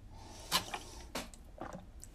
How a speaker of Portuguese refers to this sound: Uh, ouviram a cadeira?